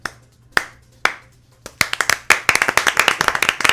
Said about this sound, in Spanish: Pero si aplaudo yo solo, o, crees que contagiaría a toda la gente?